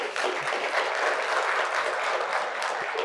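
An audience claps steadily for a few seconds for a couple married 47 years, a dense, even patter of many hands with no voices standing out over it.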